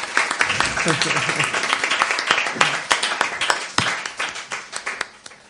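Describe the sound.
A crowd at Radio Persona applauds a collaborator coming up to ask a question, with dense, rapid clapping while some voices call out beneath it. The clapping thins into scattered claps and fades toward the end.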